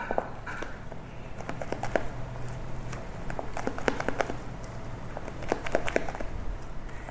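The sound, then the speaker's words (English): Soft, wet squishing and light scraping repeat irregularly as an egg yolk batter, with about a third of the egg whites added to lighten it, is stirred with a spatula in a bowl, fairly quiet, with no talking. “Just mixing it with a spatula here.”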